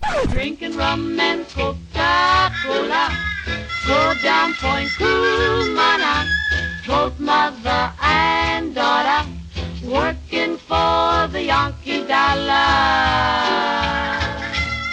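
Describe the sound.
A 1940s pop song with close-harmony female voices singing over a bouncy, steady rhythmic accompaniment, loud and continuous throughout.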